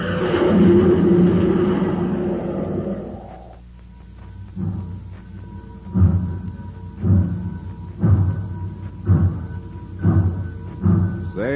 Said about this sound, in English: do you hear that, Space Patrollers? That's the Terra City Express train. It's trying to get up speed on ordinary fuel. Not very speedy, was it?